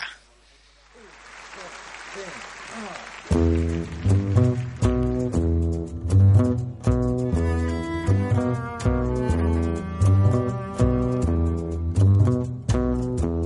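A live performance: a few seconds of audience applause, then a full ensemble launches into a steady, melodic sung song with strong rhythmic accents, loud.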